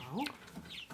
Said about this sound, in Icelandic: Þetta eru bara þetta ungar bara hænur, sex, hvað myndur þú kalla þetta? Já, 6-7 vikna ungar já.